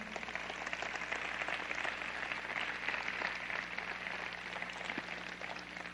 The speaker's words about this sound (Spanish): Dele un fuerte aplauso ya que empezó.